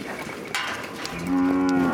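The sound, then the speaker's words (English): A cow at the Goshala Cow Sanctuary in Memphis lets out a long, low moo that swells in the final second, with rich harmonic tone over a faint background of other animal noise; no one speaks. “It's what led us to the Goshala Cow Sanctuary in Memphis, one of just a few in the country.”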